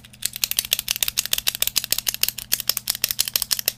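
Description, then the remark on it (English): A pen clicks rapidly over and over, about seven or eight sharp clicks per second in a steady rhythm, over a faint low electrical hum with no voices. “Why are you clicking the pen?”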